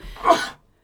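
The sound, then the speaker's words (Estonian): A single fairly loud sneeze: a short intake of breath swells into a sharp, breathy burst that cuts off after about half a second, with no talking. “terviseks. terviseks teine tuleb meil tavaliselt.”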